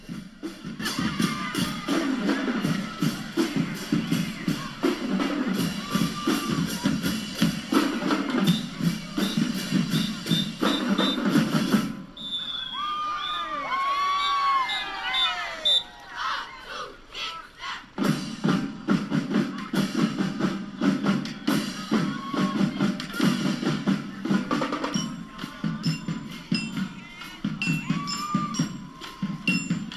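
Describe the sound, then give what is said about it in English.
The D.P. Cooper Charter School marching band, the Marching Lions of Salter, South Carolina, plays loudly and continuously, with brass and steady drum hits. Midway the low brass drops out, leaving a brief higher, wavering melodic passage before the full band returns. “What you were just listening to was the sounds of the D.P. Cooper Charter School, the Marching Lions of Salter, South Carolina.”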